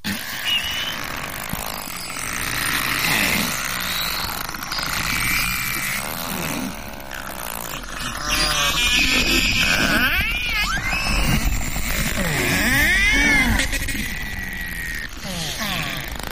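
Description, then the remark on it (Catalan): Narwhal vocalizations: a steady stream of buzzing clicks and pulsed calls, broken by rising and falling whistles and squeaky tonal sweeps over a constant underwater hiss, fairly loud and continuous. “Comencem amb el narval, l'unicorn dels oceans, conegut per la seva característica banya en forma d'espasa.”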